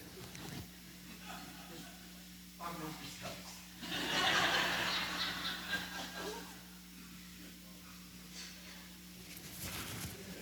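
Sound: blowing nose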